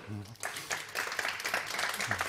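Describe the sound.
An audience breaks into steady applause after a brief murmur of voice, the dense crackle of many hands clapping holding at an even, moderate loudness for about two seconds.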